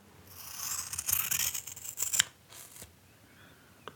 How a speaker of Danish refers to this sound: Nu tager vi øh, gabardinen. Og det er jo en, det er jo en damesaks, jeg er med her. Ja, en lille jeg damesaks.